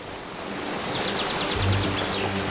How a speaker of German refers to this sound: Mal wild rauschend, mal seicht plätschernd, aber vor allem unberührt fließt Ova da Chamuera durch das gleichnamige Tal.